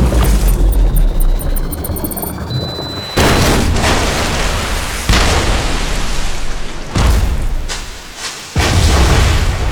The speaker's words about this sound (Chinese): 只是时间不够了，这又是一个自制炸弹。拆弹专家只能把炸弹和受害人分离，却来不及找方法暂停倒计时。老白赶紧带着拆弹专家找个空旷的地方引爆炸弹。